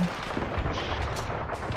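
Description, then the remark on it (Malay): Gunfire pops sporadically and grows weaker through a dense, rumbling wash of background noise, a few faint shots standing out briefly over a steady roar, with no voices. “Sinar cahaya matahari pagi terus memancar terik bunyi tembakan peluru kian lesu.”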